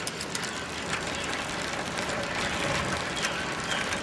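A steady, rapid ticking of a bicycle freewheel ratchet as a bicycle is pedaled runs throughout, fairly loud, over a broad hiss of outdoor noise with no pauses.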